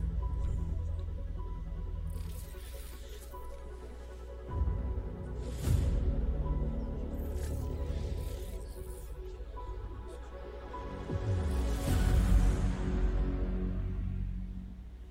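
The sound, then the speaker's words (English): Cinematic game trailer music: low sustained drones and tones, punctuated by a few swelling whooshes and hits that build to a louder surge near the end. No voices. “Nice little musical interlude for those of us listening to podcast.”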